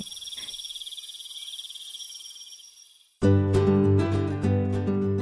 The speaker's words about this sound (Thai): และเมื่อเสียงของการสู้รบเงียบลง ค่ำคืนนั้นทั้งกบและปลาต่างก็เก็บตัวเงียบ มีแต่มแมลงเท่านั้นที่ส่งเสียงร้องในค่ำคืนนี้